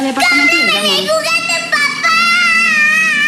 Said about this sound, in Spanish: niños haciendo berrinches.